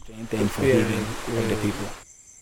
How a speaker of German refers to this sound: Zwei Flüsse fließen an diesem Ort zusammen der Donkun-Su und der River Wuchi.